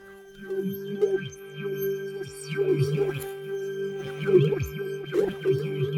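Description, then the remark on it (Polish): A sustained synthesizer tone, the Amorphous Metal sound, warps and distorts as the modulation wheel is slowly moved from start to end, with sliding pitch streaks and bursts of gritty, crackling texture rising and falling in waves over several seconds. “I on przechodzi przez kilka stadiów zniekształceń tego dźwięku.”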